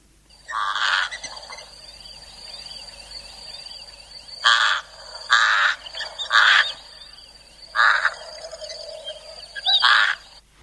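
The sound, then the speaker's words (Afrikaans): A pied crow gives a series of about six harsh, raspy caws at irregular intervals, loud, over a faint background of thin, high twittering. “Nou, ek vermoed Elise dat jy lê praat van die witborskraai wat so klink.”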